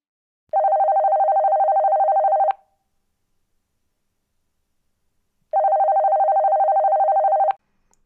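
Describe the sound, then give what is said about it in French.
A telephone rings twice, each burst a rapid electronic trill lasting about two seconds, separated by a few seconds of silence. Loud, with no voices. “Lorsque le téléphone sonna, Claude Talot était en train de rêver de plages de sable fin”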